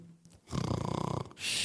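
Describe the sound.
A voice imitates a yawn: a drawn-out, creaky groan of just under a second, then a breathy exhale. Fairly loud, with no words spoken.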